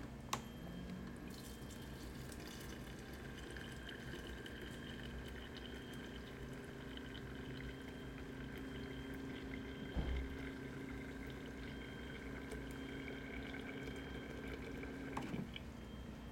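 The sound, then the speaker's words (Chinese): Water pours steadily into a teapot to brew the last pot of tea in a fourth-floor apartment in a small alley, a soft, even trickle that runs unbroken for the whole stretch, with a couple of faint clinks partway through and near the end. “然后我茶叶刚好剩下最后一些，这是最后一壶茶，”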